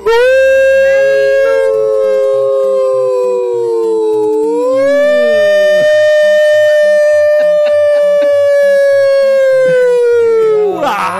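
A loud ambulance siren wails continuously, its pitch sliding slowly up and down in one long sweeping tone, steady, with a faint low pulsing rhythm beneath and no talking.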